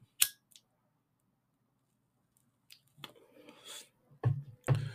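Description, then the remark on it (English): A lighter is flicked: a sharp click and a fainter second one, then a soft hissing rustle followed by two more crisp strikes near the end. No one speaks. “Let me light it.”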